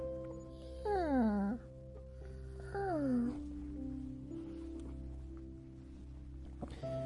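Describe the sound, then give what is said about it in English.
A male puppy gives two short, squeaky yawns, each sliding down in pitch, over a steady low hum. “Uh, it's a cute sound. He does this little yawn.”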